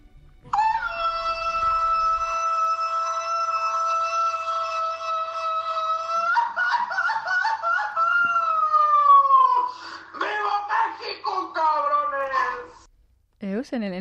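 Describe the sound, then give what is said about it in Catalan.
A traditional Mexican grito: one voice holds a loud, high, steady yell for several seconds, then breaks into a warbling, trilling cry that slides downward in pitch before cutting off. “és un crit que és com un sentiment que no pots expressar en paraules i sols amb aquest crit ho pots fer.”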